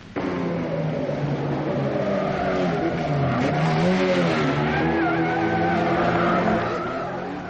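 A car engine roars and revs hard, its pitch climbing and sliding as it accelerates, with tires squealing sharply over the loud, continuous motor noise; no one speaks.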